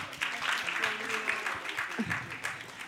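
An audience claps steadily for a few seconds for a participant after a bubble-catching demonstration, a dense, continuous patter of applause at moderate volume with some faint murmuring voices beneath it.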